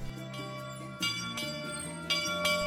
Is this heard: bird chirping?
no